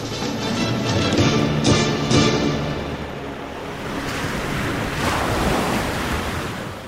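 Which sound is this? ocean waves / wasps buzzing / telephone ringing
ocean waves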